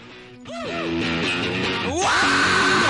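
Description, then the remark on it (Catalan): Loud music from the first track of a played record, with a raw, strained vocal shout rising over dense distorted instruments, the voice sliding and wavering in pitch before the band grows even louder and harsher. “Dos o tres crits.”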